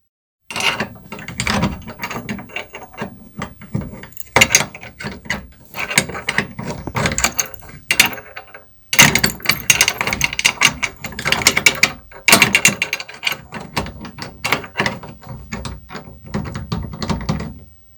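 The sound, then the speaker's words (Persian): A chest lock's mechanism clicks and ratchets continuously for about eighteen seconds, with dense metallic clatter, grinding gears and brief pauses, loud and alone with no voices. “زود باش قفل صندوق چرا بکشا وقت بسیار تنگ است”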